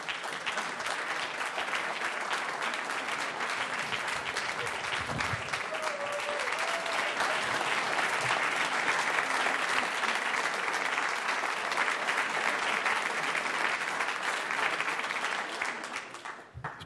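Sustained applause from a large theatre audience at the Kulturni dom in Gorica as a performer leaves the stage, a dense wash of clapping that holds steady at full strength for about sixteen seconds before tapering off at the end.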